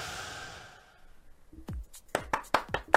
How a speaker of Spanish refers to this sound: ¡Ay, el aplauso! Ah, es el tercer programa del año y no de que si no se aplaude uno, ¿quién?